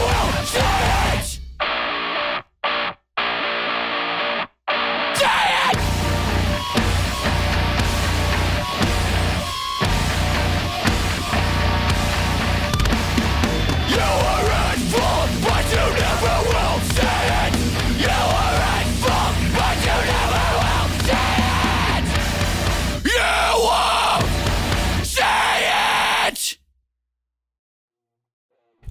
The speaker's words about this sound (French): Ça, ça c'est de la grosse intro de métal, c'est de la grosse intro de hardcore, ça te met des grandes gifles dans la gueule, ça te remet en place instantanément.